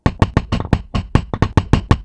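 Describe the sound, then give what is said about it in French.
Rapid, heavy pounding on a farmhouse door by a young woman, about a dozen loud knocks in a fast, slightly uneven rhythm, with no voices. “À la première ferme qu'elle trouve, elle tambourine sur la porte.”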